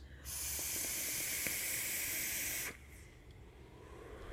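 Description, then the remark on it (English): One long, steady draw on a vape atomizer with a 0.5 fused Clapton coil on an unregulated series mod, an airy hiss with faint crackles that lasts a couple of seconds and then cuts off into near quiet. No voices. “Anyway, let's give it a couple more toots here.”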